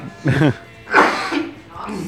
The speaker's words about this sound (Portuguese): O cara começa a tossir, não aguenta mais falar.